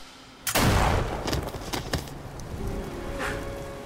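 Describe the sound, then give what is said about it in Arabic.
A loud gunshot from a hunting rifle cracks out suddenly, followed by a few sharper follow-up bangs and a rumbling, echoing tail that slowly fades. No one speaks. “ويلتفت ورا الجدة ويطلق عليها النار”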